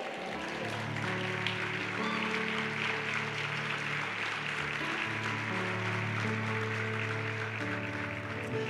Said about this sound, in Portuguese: Agora, só quem se compromete a viver tudo isso, fica de pé no seu lugar e dá uma salva de palmas para Jesus.